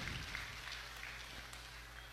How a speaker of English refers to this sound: It's actually she'll helped up, but very gingerly holding that left arm. That's a good hand from the crowd.